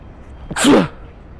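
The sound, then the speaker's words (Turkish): A single sharp sneeze bursts out, a quick intake followed by a loud, breathy explosive blast that fades fast, with no talking around it. “Teşekkür ederim. Sağ olun çok yaşa diyen yani dilleriniz dert görmesin.”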